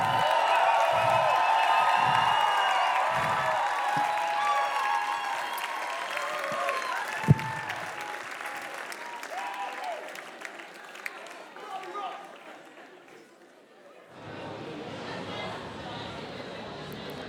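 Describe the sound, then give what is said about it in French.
A large crowd at the BIS Festival in Nantes, France cheers and applauds loudly in a dense, sustained roar with scattered whoops, gradually thinning out before a quieter, steady background murmur takes over near the end. “Faites encore un peu de bruit, s'il vous plaît. Une dernière fois.”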